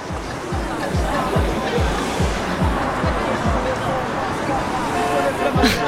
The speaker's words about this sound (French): Alors je sais pas si tu entends, mais il y a du bruit puissance 1000. Des voitures partout, des klaxons, des gens qui grouillent. C'est plein de vie, ça fait du bien de voir ça. C'est Marseille, bébé.